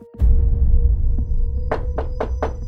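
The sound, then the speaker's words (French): Five firm, evenly paced knocks on a door, Sheriff Anderson Jordan knocking at the Medvins' door on 6 March 1934, ring out near the end over a steady low rumbling background with no voices. “Le shérif Anderson Jordan frappe à la porte des Medvin.”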